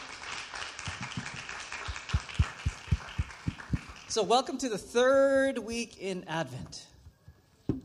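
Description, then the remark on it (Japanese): An audience at a Christmas gathering claps together for several seconds with steady, rhythmic beats for a dance team that performed a sign dance, then the clapping gives way to voices calling out and chattering. “もう一度サインダンスを踊ってくださったダンスチームの皆さんに素晴らしい拍手をお願いいたします。”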